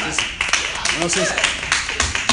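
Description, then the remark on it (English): A group claps in a steady, dense patter of bright slaps that runs the whole time, with a voice briefly speaking over the applause. “We need to clap for that, seriously.”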